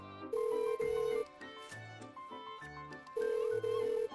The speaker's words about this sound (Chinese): 沈曼玉见他不很在意的样子，也拿出手机拨打电话。